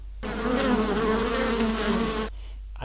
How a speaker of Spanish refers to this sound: A, ah, abeja. Abeja.